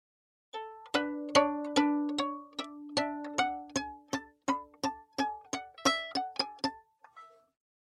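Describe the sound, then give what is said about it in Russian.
A violin played col legno: about seventeen quick, dry taps of the bow's wood on the strings, each leaving a short pitched ring, in an uneven rhythm, fairly loud with no voices. “при котором смычок играет не основной своей стороной, то есть э, волосом, а он переворачивается, и эта древка начинает стучать по струнам, и звучит это примерно так.”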